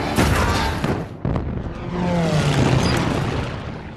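A loud, dense battle scene from the 2001 Michael Bay film Pearl Harbor: booming explosions and rattling gunfire over a continuous roar, with a brief lull followed by a sharp blast, and a whining engine-like tone underneath.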